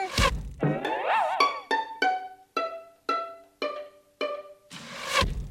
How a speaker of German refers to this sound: dieser Schuss saß perfekt, oder? Hast du den Pfeil irgendwo gesehen?